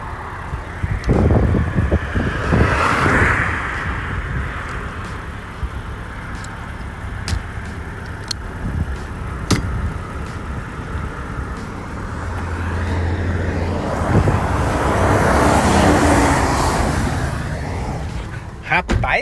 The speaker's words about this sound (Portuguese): esse caminhão me deu medo, hein? O caminhão passou aqui lambendo aqui meu carro no acostamento.